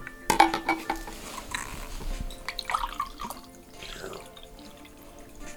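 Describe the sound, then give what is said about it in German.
A glass clinks, then a drink is poured into it, a steady trickling and gurgle whose pitch rises as the glass fills. No one speaks. “Kannst du mir auch noch was einschenken?”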